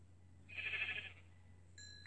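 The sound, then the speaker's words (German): A single short sheep bleat from a video game, from a sheep up ahead, wavering and fairly loud, followed by a brief tonal blip over a steady low hum, with no one talking. “Oh, da vorne ist ein Schaf.”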